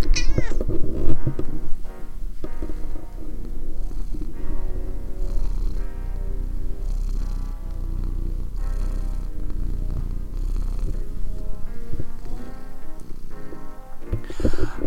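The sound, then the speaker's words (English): A cat purrs steadily for the whole stretch, a low continuous rumble broken by several short meows near the start and end. “Good recording of that beautiful cat.”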